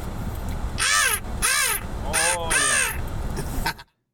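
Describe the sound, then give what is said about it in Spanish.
A person imitates a crow, giving four harsh, nasal caws in a steady rhythm, loud, with a quieter fifth call trailing at the end. “Ese, ¿Cómo se llama ese, pájaro negro? Eh, ¿Pájaro suelas? no. El, crow. el pájaro.”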